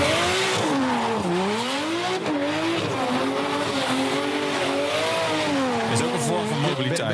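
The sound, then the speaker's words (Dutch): A car engine revs and wails continuously, its pitch swinging up and down as tires squeal through a drift, loud throughout. “jij dit of is dit echt eh, iemand die kan driften?”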